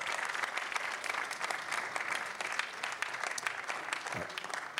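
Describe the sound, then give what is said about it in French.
Sustained applause from an audience, a dense steady clatter of many hands clapping at an even loudness throughout, with no voices standing out. “On peut les applaudir.”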